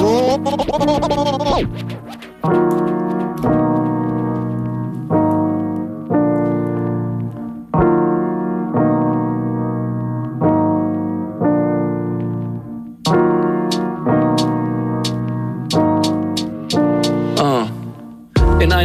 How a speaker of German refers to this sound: auf jeden Fall hat der Klavier, wie ihr hört. Der kann, der kann da nur gut sein.